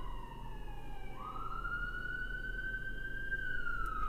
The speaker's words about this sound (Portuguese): Ó, gente, sirene de Nova York, tá?